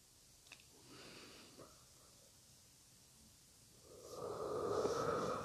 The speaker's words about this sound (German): ganz tief gähnen, indem wir das Körpergewicht nutzen, um der Stimme Gewicht zu geben. Also nicht aus der Kehle Gewicht geben, sondern das Körpergewicht nutzen, um der Stimme Gewicht zu geben.